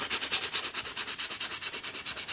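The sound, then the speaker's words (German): Quick, steady back-and-forth scrubbing with a scouring sponge of the kind used for cleaning stove plates and pans, a rough abrasive rasp repeating in a fast even rhythm with no voices. “Oder dann habe ich hier noch ein Schwimmchen, das man braucht für die Kochherdplatte oder für die Pfanne auszuputzen.”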